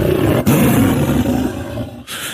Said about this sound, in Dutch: Dus wees woedend en brullend als een leeuw. Daar komt hij weer.